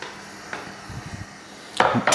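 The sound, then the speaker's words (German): Meat being pounded flat with a mallet for cooking: a light knock and a few soft thuds, then two louder, sharper smacks near the end, irregularly spaced, with no one talking. “Das tue ich jetzt klopfen.”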